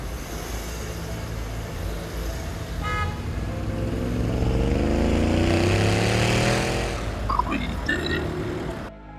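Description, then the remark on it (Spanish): A motorcycle engine starts up and revs, its exhaust rising into a loud, throbbing drone that holds for several seconds before easing back with a few sharp pops. “De pronto se escucha el arranque de una motocicleta y el sonido que hace su escape”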